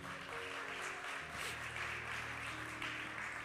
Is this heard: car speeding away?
no